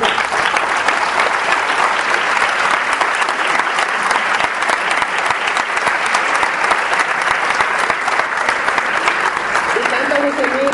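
Steady, loud audience applause, dense rapid clapping from many hands that holds at an even level throughout, with no voices rising above it.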